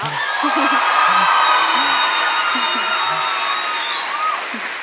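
A crowd claps steadily and loudly for a few seconds, with scattered whoops and cheers rising above the dense applause before it begins to fade.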